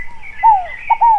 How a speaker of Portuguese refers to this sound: Esse é o canto da rolinha Fogo Apagou